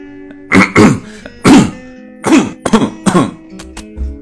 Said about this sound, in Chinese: 没有啊，我刚刚咳嗽，我把话筒给关了，你们还能听见吗？那我现在咳两声，我看看你们能不能听见。